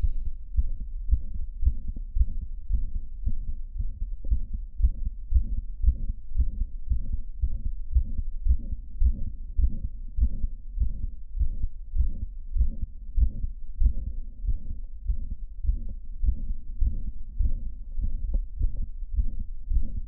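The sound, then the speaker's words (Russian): A steady, rhythmic heartbeat with a near-continuous murmur filling much of each beat, repeating evenly throughout, low-pitched, with no talking. It is a near-pansystolic murmur from mitral valve prolapse, heard as the patient stands upright again after squatting. “Пациент снова занимает вертикальное положение, шум становится почти пансистолическим.”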